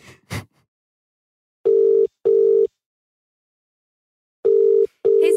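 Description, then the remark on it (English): A phone ringback tone from an outgoing call placed on a phone sounds in steady paired bursts: two short buzzing rings, a long pause, then two more, clear, with a brief click at the start and no talking. “So let me call him on my phone.”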